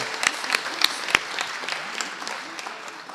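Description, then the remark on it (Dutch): Audience applause for a speaker from Volkspartij Dongen coming forward to give a one-minute pitch: a steady patter of many hands clapping at moderate volume, with a few sharper claps standing out, continuing for a few seconds. “En daarvoor, dames en heren, wil ik graag een hartelijk applaus voor de één minuut van meneer Jansen van Volkspartij Dongen.”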